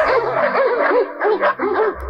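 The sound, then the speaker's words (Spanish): Several dogs bark and yip at once in a dense, overlapping chorus, loud, with whiny, rising-and-falling calls running continuously throughout. “¿Tienes perro? Eh, sí, maestro, varios. Entonces mete a todos en la casa.”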